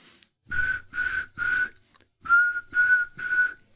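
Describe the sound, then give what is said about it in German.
A person whistles six short, steady blasts in two groups of three, evenly spaced, imitating the SR5 train horn signal of whistling at intervals; the whistling is clear with brief pauses between blasts. “Genau, also für die, für die, die es nicht wissen, SR5 sind einfach im Intervall Pfeifen.”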